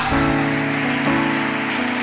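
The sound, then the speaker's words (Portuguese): A church audience claps steadily, applauding the Lord in the name of Jesus, in a dense, continuous wash of applause, with sustained low musical tones running underneath throughout. “Dá um forte aplauso ao Senhor, em nome de Jesus.”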